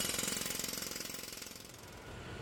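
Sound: jackhammer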